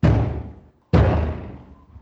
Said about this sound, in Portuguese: a entrada brusca aí, eu entrei chutando a porta, eu sempre faço isso, não posso controlar.